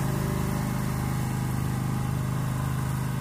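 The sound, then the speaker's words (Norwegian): A lawn mower engine drones steadily, a loud, continuous mechanical hum with a rapid buzzing pulse and no pauses. “Her kommer en gressklipper da, midt i moroa.”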